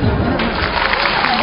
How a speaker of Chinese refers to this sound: 谢谢朋友们的掌声鼓励啊！